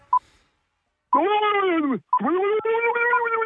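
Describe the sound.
A person imitates a mountain gorilla call with two long, drawn-out wailing vocalizations, loud, the first sliding downward. A brief beep sounds just before.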